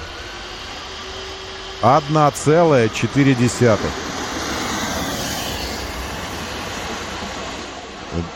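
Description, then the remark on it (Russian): A steady, loud whooshing roar of a fan car's suction fans pulling air from under the car to create negative pressure, no jet engine, as the car launches from 0 to 60 mph in 1.4 seconds, with a brief stretch of speech over it near the start. “То, что вы слышите, это звук, э, звук вентиляторов, которые отсасывают, вы уж мне простите этот термин, воздух из-под днища автомобиля для того, чтобы там создавалось отрицательное давление”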